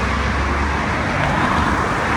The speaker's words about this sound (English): very busy on traffic.